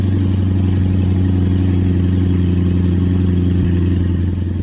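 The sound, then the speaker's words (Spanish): A new Corvette C8 sports car engine runs loud, a deep, steady throbbing rumble with a constant low drone that holds its pitch throughout, with no voices. “Es más, te voy a poner el ruido que trae el motor que trae este.”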